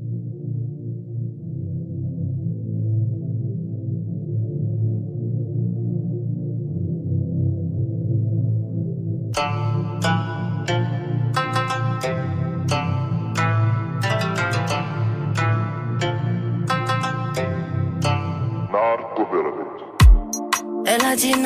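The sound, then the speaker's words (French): An R&B song plays steadily, opening on a smooth, sustained low synth bed before crisp beats and brighter layered instrumentation come in halfway through, full and loud. “Euh, un petit son, on était dans le RB, on reste un peu dans le RB”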